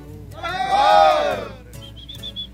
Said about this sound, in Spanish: Todos griten bien fuerte la mejor, una, dos, tres.